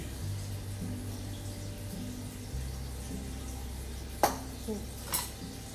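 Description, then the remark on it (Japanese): Food sizzles softly in a pan over a steady low hum, with two or three sharp pops bursting out near the end as something in the pan bursts. “爆発しました 大丈夫ちょっと火を弱めます”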